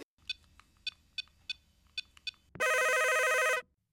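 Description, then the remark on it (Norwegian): The studio phone at Radio Revolt rings: a string of short, evenly spaced electronic chirps, then a loud sustained trilling burst of about a second, clear with no voices. “Radio Revolt 6-telefon, vær så god.”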